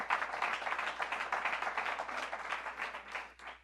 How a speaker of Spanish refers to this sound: Si usted lo cree, denle un aplauso al Señor con todo el corazón.